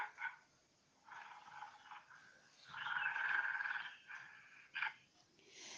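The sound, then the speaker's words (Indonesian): A hungry gorilla in a forest, heard in the distance, calls out in a series of rough, throaty hoots and grunts, several bursts rising and falling with one longer sustained call in the middle, fairly faint with no one talking. “Gorila pun mengeluarkan suaranya seolah memanggil binatang yang lain di hutan.”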